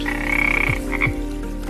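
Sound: frogs croaking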